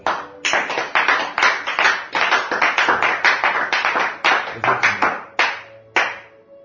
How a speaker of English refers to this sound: Can we clap unto Jesus?